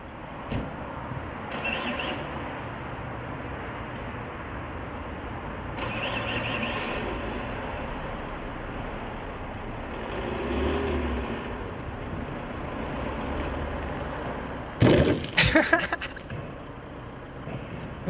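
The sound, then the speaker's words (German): A car engine runs steadily with a low rumble, swelling in a couple of revs, then a brief burst of sharp, crackling noise near the end. “Das ist Manuel sein Auto.”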